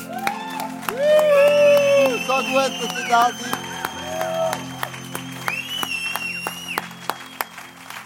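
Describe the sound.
The crowd inside claps steadily and cheers for the viewers at home, with high whoops and shouts rising over the applause. A man speaks briefly through the noise, and the clapping thins out toward the end.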